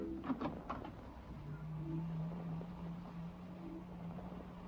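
A door opens with a few quick clicks followed by a long, low, drawn-out creak that holds steady for several seconds, moderately loud, with no voices.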